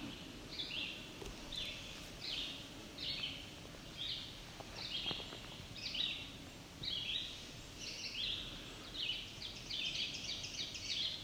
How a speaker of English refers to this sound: That was an ovenbird.